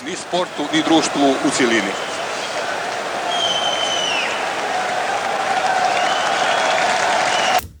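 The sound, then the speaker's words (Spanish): A large football stadium crowd in Split applauds as a Yugoslav flag is burned, a dense, steady roar of clapping that lasts throughout, with raised voices and shouts mixed in during the first couple of seconds before it cuts off abruptly. “La patada de Boban, los abucheos al himno y esa bandera yugoslava quemada entre aplausos la televisión ha llevado las tres escenas a todos los rincones del país.”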